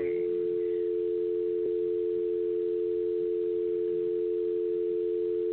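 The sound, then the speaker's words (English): A telephone line tone after a call is disconnected from a number not in service: one steady, unbroken electronic hum at a low-mid pitch, holding at even loudness for over five seconds with no voices. “Ooh, they got disconnected.”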